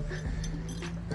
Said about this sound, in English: I am outside. If you hear that dog, that's my dog in the back. Well, it's my son's dog crying because he cries he's still a puppy. He's still a puppy.